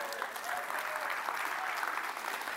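Steady applause from an audience fills the whole moment, a dense patter of many hands clapping at once, moderately loud and continuous without pause, with no voices rising above it.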